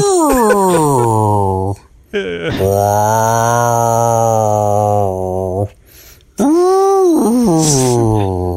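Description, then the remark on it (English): A human voice imitates whale song in three long, loud, moaning calls. The pitch slides and wavers up and down, with short silences between the phrases. “Whale song solo.”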